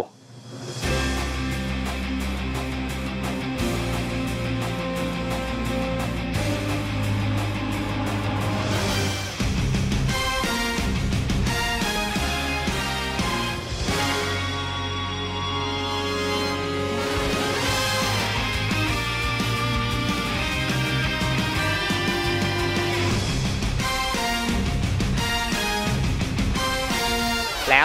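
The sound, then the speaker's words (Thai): A full, loud instrumental theme with driving rhythm and layered melodic lines plays continuously for almost thirty seconds, with no talking over it; it is the shared theme from the hero films Movie Taisen Mega Max and Movie Taisen Ultimatum, used when three Riders transform together. “อย่างเช่นตีมของมูวี่ไทเซนเมกะแม็กกับมูวี่ไทเซนอัลติเมทัมที่เป็นตอน3ไรเดอร์แปลงร่างพร้อมกัน มันจะมีตีมกลางเอาเป็นว่าลองไปฟังกันดู”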